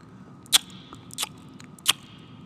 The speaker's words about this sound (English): What you chewing? What I'm chewing. I am chewing on some focaccia bread to go along with my um, cannellini thyme soup.